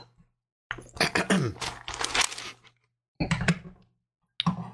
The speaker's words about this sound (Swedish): Han skyfflar bara... med papperna lite granna.